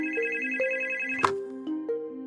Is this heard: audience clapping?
no